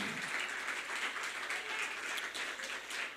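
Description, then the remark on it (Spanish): An audience claps loudly and steadily for the Lord in a morning service, a dense wash of many overlapping hand claps with no voices rising above it, sustained evenly throughout. “A su nombre, dale ese aplauso fuerte al, Señor en esta mañana.”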